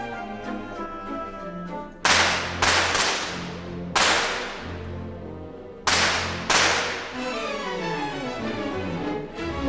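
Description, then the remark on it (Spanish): Sharp, loud gunshot-like sound effects burst out five times, some in quick pairs, each ringing off over the sustained orchestral music of a ballet score that keeps playing underneath. “teníamos las balas que sonaban y que ofendieron a, los a los críticos.”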